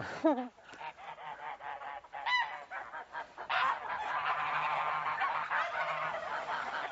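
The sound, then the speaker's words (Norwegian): A flock of geese honk and cackle continuously, several birds calling over one another, with a few sharper squawks rising above the busy, overlapping chorus. “Men de vokser utrolig fort, disse her gjessene.”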